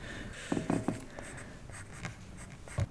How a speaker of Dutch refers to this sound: Nou, maar dat heb je wel goed gedaan hoor, zo een oortje tekenen zo. Een oortje, ja, precies.